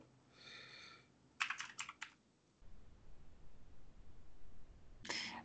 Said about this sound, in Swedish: som knappar på tangentbordet bara så att ni vet att de inte fuskar.